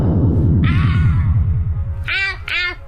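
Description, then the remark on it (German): A cat meows three times, one drawn-out mew followed by two shorter, sharper cries close together, over a steady pulsing low rumble that runs throughout. “Kater?”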